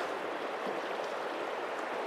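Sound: river water flowing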